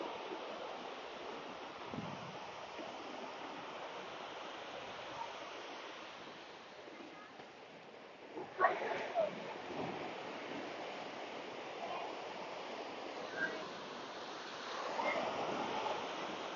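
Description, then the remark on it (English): A steady, broad roar of surf washes over a beach with people around, including a group of kids exercising and 20 ocean skis heading out to sea practicing race starts, with faint, indistinct activity in the background and a brief louder burst of sound partway through. “I hope you can hear all the people around me here. There's a little group of kids doing exercise.”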